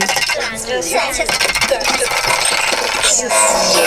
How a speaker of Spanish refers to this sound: Entonces lo pongo. Estos sonidos que estáis oyendo los hace el brazalete. Y entonces a, moverme.